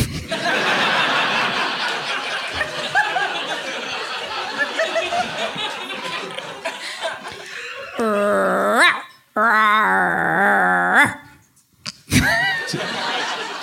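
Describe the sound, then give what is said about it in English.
A voice imitates a big cat's growl with two drawn-out, rumbling roars, loud, following several seconds of dense rustling, crackling noise. “Rawr. Rawr. Jesus, big cat. Scared me half to death.”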